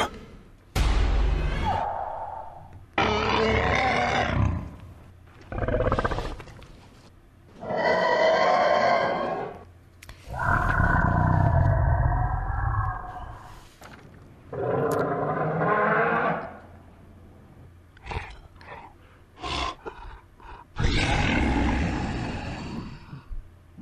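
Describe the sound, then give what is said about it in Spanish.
A series of loud, drawn-out roars and growling bellows, some deep and rumbling, others higher and harsh, separated by short pauses: reconstructions of what dinosaurs are believed to have sounded like, not lions or tigers. No talking. “Estamos escuchando, bueno, lo que creemos los actuales seres humanos que fueron los sonidos de un dinosaurio o de varios dinosaurios.”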